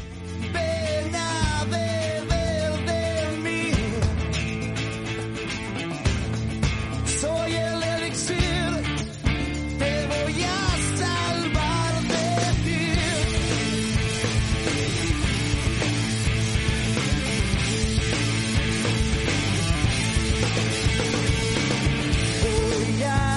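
A full-band song by a Madrid band plays at a steady, loud level for the whole stretch, with driving drums, thick sustained guitar or keyboard chords, and a dense, continuous mix.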